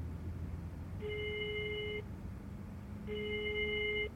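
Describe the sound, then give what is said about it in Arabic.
A WhatsApp outgoing call ringback tone on speakerphone repeats twice, each steady electronic tone lasting about a second with a pause between, playing over a low background hum with no one speaking; the call goes unanswered. “وهي عم دق له على الواتساب ها وراح افتح لك السبيكر لحتى تتاكدي ني ها تفضلي ها.”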